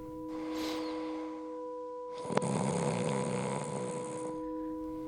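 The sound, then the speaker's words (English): A single snore: a soft drawn-in breath followed by a louder, rough rattling exhale lasting a couple of seconds, with a faint steady electronic hum underneath. “I feel really bad that I snore, and I'm sad that it means that we can't share a bed.”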